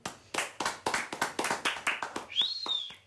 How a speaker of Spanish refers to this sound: Un aplauso.